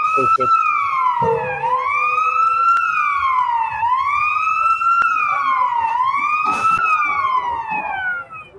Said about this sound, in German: Ja, das sind die Geräusche beim 24-Stunden-Rennen in Dubai, genau. ja, perfekt. Das ist einfach komplett mitgenommen. So soll es sein. Äh, ganz kurz hinten ist wahrscheinlich der Rettungswagen gewesen, oder was war's?